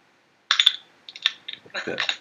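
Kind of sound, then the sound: food or drink, beer being opened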